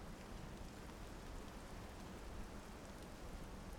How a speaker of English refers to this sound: And I like take my head in a wave or like the moon like it like helps glisten on my skin as like this as the rain comes down, you know, like in a movie.